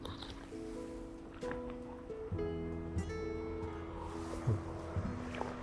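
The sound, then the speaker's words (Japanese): A motorcycle engine drones from behind and grows louder as it approaches, its humming tone shifting in pitch over a steady low rumble. No one speaks. “今ちょうど後ろからね、バイクが来てる。”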